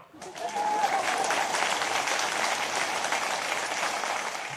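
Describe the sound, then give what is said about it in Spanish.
A single person claps alone: steady, dense clapping starts almost at once and continues at an even, fairly loud level for about four seconds, with no pause or build. “Y obviamente con híbrido eléctrico me he quedado yo solo aplaudiendo.”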